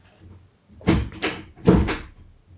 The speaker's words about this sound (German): das, das, war die, Tür. Tür. Genau.